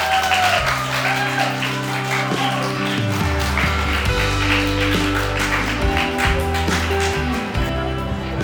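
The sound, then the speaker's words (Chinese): An audience claps steadily for several seconds to welcome a guest lecturer, a dense patter of many hands that stays even in loudness, with a sustained musical tone running underneath. “掌声欢迎！”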